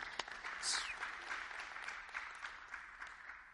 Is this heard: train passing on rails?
no